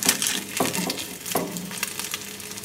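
An egg frying sunny side up in a pan, a steady hissing crackle with two soft clinks or scrapes from a utensil partway through. No one speaks.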